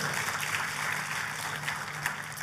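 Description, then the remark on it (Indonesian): Steady, dense applause from a crowd giving loud applause to God after a prayer, a continuous wash of many hands clapping at moderate loudness with a faint low hum underneath and no voices standing out. “Katakan amin amin tepuk tangannya yang meriah buat Tuhan kita.”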